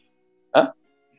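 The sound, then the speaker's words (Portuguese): A single short, sharp sneeze bursts out, loud and abrupt, with quiet before and after and no talking. “Saúde real aqui. Saúde real.”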